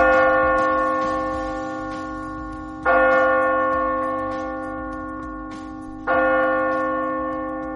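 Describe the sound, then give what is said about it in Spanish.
A clock tower bell tolls three slow, evenly spaced strikes, each deep resonant chime ringing out and fading before the next. The bell is loud and clear, with no talking. “Campanadas, Gran Noche y después El Misterio de 2024.”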